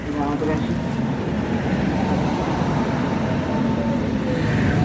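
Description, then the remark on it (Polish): Steady low rumble as a person boards and rides a tram, heard from inside the car, with a constant mechanical drone and some faint tonal whine early on, and muffled voices blending into the background noise. “Dobra, wskakuję do tramwaju.”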